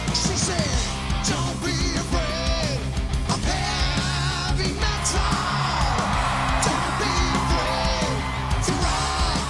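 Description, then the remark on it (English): A concert crowd cheers and yells over loud, dense live music, with whoops and shouts rising out of a steady roar that fills the whole stretch without pause. “The crowd loves them.”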